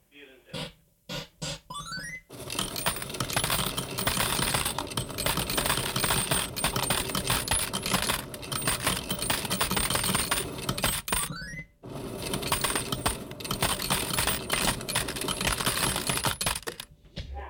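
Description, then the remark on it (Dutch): Three coins are dropped all at once into a game machine: a few sharp clinks at first, then a long, loud metallic clatter as they tumble through, pausing briefly before rattling on again. “Dat houdt in dat je drie muntjes hebt. Nou, dan gooien ze alle drie tegelijk erin.”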